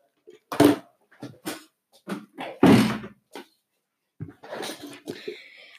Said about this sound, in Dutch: Ik ga even tenminste wel die, even die deur dicht doen.